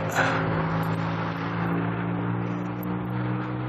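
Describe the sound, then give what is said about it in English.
Steady rumble of street traffic, heard while crossing a street, with a low engine drone holding even throughout, a brief swell of passing-car noise near the start, and no voices. “Uh, sorry, crossing the street. More dangerous than it sounds.”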